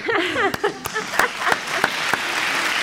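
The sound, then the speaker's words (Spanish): One person claps their hands in a steady rhythm, about seven sharp claps evenly spaced, while a voice laughs and speaks briefly at the start. “Ahora sí que es donde tengo que aplaudir yo.”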